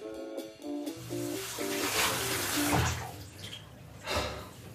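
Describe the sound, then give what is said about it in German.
Tap water runs steadily and splashes as a vacuum cleaner filter is rinsed under it, the water coming out of the filter dark black. The gushing stream shifts in tone with a few brief clatters, fairly loud with no talking. “Okay, das Wasser, was aus diesem Filter rauskommt, ist dunkelschwarz.”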